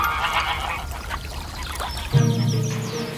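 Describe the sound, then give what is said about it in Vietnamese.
A flock of geese honks and cackles in a busy, overlapping chorus, with a louder, lower honking call breaking in near the end, with no one speaking. “Họ coi đàn ngỗng tới khi trời chiều trở tối Rồi lại lùa đàn ngỗng về nhà”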